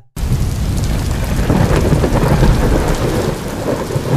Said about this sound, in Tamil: என்னது திடீர்னு இப்படி இடி இடிக்குது திடீர்னு இப்படி மழை வருது